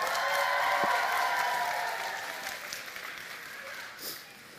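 Sustained applause from an audience, a dense wash of clapping that holds steady for several seconds and then slowly thins out, with faint crowd murmur mixed in.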